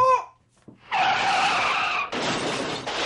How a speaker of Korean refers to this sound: 드라마에서 빠질 수 없는 교통사고.